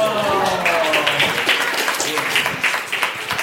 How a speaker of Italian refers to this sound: Un applauso!